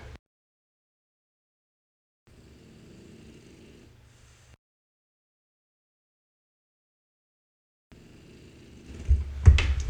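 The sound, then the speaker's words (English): Two slow, raspy snores from Basil, a sleeping animal, with long quiet pauses between them; the second snore grows louder and rougher toward the end. No one speaks. “And we'll leave you today with Basil snoring.”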